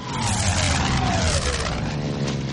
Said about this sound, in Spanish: El coche se aleja a toda velocidad. Los Jones viajan en él. Indy conduce mirando inquieto por el retrovisor.